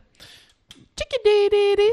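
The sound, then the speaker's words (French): A black-capped chickadee call: a few faint, high, quick notes followed by a run of buzzy, harsh, repeated 'dee' notes, fairly loud. “Ça, c'est le cri de la mésange à tête noire.”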